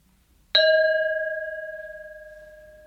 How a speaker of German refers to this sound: Schlag du vielleicht noch mal dein Glas kurz an